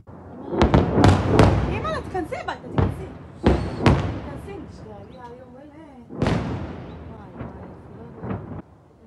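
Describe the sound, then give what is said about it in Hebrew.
A heavy barrage of rockets fired from the Gaza Strip: loud booming launch blasts that come in an irregular burst and trail off into rumbling, with voices calling out between them. “מתח רקטות כבד נורה מהרצועה, והזכיר לכולנו שהאיום מעזה לא הלך לשום מקום”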